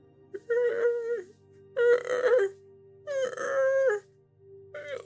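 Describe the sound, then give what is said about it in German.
Drawn-out, wavering howls, growing ever louder, rise and fall in about four separate bursts, each a second or so long, over a steady low hum. They are fairly loud, with no one speaking. “Dieses Jaulen wird immer und immer lauter jetzt.”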